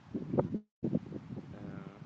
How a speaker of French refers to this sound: Tu m'entends bien Il n'y a pas de problème de vent là Parce que j'ai bougé Il y a toujours du vent, mais moi j'ai l'habitude. Hein. Tu as l'habitude du vent oui, voilà, j'habite juste en face de la mer, donc euh, j'ai l'habitude.